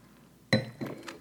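glasses clinking

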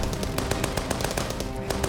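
burst of gunfire

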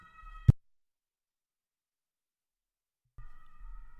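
ambulance siren passing outside

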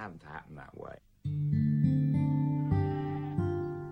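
sheep bleating

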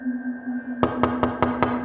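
knocking on a door

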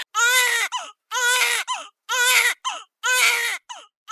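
baby crying

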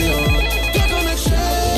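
telephone ringing

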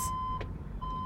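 vehicle reversing warning beeps

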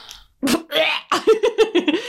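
burp

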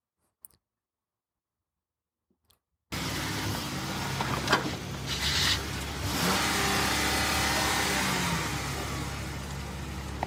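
car engine revving

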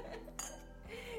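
wine glasses clinking

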